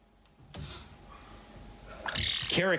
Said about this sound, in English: If you didn't learn anything else from Inside Sports tonight, you learned that what a caracal sounds like, and that I have uh, very little other knowledge of this animal.